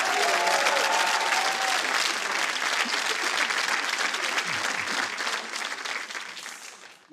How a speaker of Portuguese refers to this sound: Salve de palmas para o Walter.